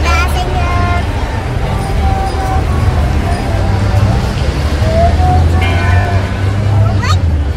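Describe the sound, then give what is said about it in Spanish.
Busy downtown street ambience on Calle Libertad in the centre of Chihuahua, Mexico: a steady low rumble of passing traffic and engines, with scattered horn-like tones and a background murmur of crowd chatter, continuous and fairly loud throughout. “que comenzamos a escuchar al fondo es el ambiente en el centro de la ciudad de Chihuahua, en la calle Libertad.”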